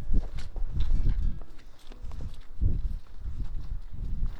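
Two people's footsteps tramp steadily across soft, grassy ground as they walk into grassland near the river Vecht, one in rubber boots and one in wooden clogs carrying a long pole, with a regular walking rhythm and faint rustling between steps, no talking.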